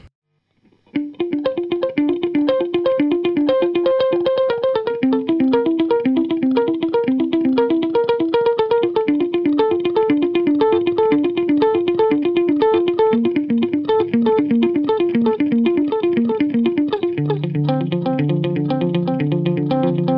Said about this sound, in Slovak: Existujú napríklad digitálny delay, ktorý znie takto.